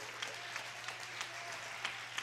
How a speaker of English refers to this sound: Clap your hands if you're thankful for the story.